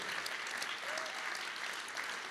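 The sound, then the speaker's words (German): A dense, steady burst of audience applause for the team that sets up and takes down here each week. Many hands clap together without pause for the whole moment, sounding full and sustained with no voices rising above it. “einen Tosender Applaus geben dafür, dass jede Woche hier auf und abbauen.”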